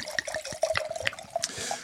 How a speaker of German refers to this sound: Ich gieße mir mal parallel, damit überhaupt irgendwas in diesem Podcast passiert, gieße ich mir ja. mal hier ein Glas Wein ein.